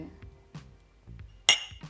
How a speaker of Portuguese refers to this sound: Um brinde, outro brinde. Pode? Outro brinde. Vamos fazer um brinde.